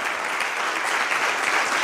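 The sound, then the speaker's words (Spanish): An audience at a Spanish-language church service applauds God in a dense, steady wash of clapping that holds at an even, fairly loud level throughout, with no single claps standing out and no voices on top. “Dele un aplauso, venga, gigante, gigante, fuerte.”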